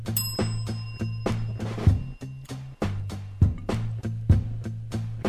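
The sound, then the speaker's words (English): A bright bell rings once near the start, its high tones lingering a couple of seconds over a steady, thumping beat with a low droning bass that continues throughout. “ring my bell again.”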